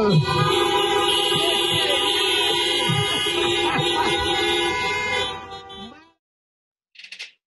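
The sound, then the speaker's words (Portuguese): A chorus of many car horns blares together in one loud, sustained salute for about six seconds, then abruptly stops, leaving silence broken by a brief short burst. “Sensacional a salva de buzina!”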